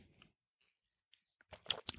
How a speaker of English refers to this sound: And with that, mm, mm, I'm going to take a fine sip of this already reheated once Dunkin' Donuts coffee.